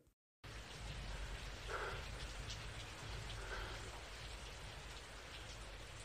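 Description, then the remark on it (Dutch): Steady, dense rainfall fades in after a brief silence and continues as a constant wash of even patter, with no voices and only faint hints of something brighter within the noise; the opening of a track from the Blade Runner film soundtrack. “gaan we afsluiten met een track van de soundtrack van Blade Runner, met daarin ook de stem van Rutger Hauer.”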